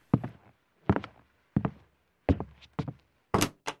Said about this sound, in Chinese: 似乎等了很久，里面传来沉重的脚步声。